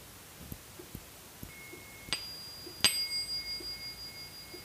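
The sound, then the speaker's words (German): Two quick strikes of a small hand cymbal (Zimbel), the second a bit louder, each leaving a high, bright ring that shimmers and slowly fades. “Das ist der Klang einer Zimbel.”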